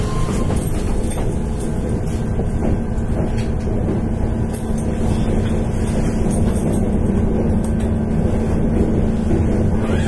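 A Keihan Electric Railway 13000 series electric train running, with a steady, loud low rumble and constant mechanical drone throughout, with no talking.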